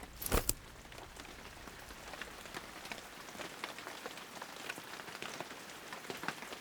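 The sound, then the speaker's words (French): Rain begins to fall, pattering steadily on a hard surface, a dense hiss scattered with sharper drops, opening with a brief louder burst before settling into an even, continuous shower with no voices. “Il commence à pleuvoir.”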